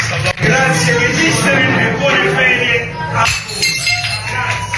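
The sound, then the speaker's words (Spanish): Plates thrown to the floor by staff in a busy trattoria in the Spanish Quarter of Naples crash and shatter on a hard floor, with ringing clinks of crockery and a steady hubbub of shouting voices and clatter throughout. “A veces incluso lanzando platos al suelo para que se rompan en pedazos para sorpresa y diversión de los clientes.”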